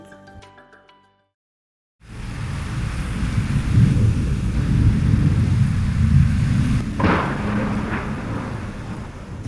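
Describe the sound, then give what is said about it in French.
After a short musical snippet and a moment of silence, a loud thunderstorm rolls in: deep, continuous thunder rumbling over steady rain, with a sharper crack partway through. “Alors, quand euh, il y a un orage, on peut dire que c'est une tempête, mais c'est un gros orage, il s'arrête contre la falaise au-dessus de la rivière.”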